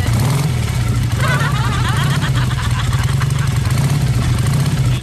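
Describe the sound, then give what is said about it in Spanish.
A man snores loudly in an audio recording, a rough, rattling low drone that continues steadily for several seconds without a break. “Yo tengo audio de … roncando, escucha.”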